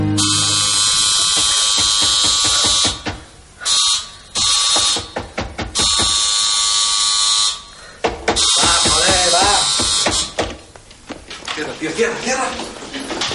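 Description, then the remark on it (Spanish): A harsh electric doorbell of a house buzzes loudly in several long bursts with short gaps between them, and voices and other noise fill the pauses. “Despierta al escuchar el timbre.”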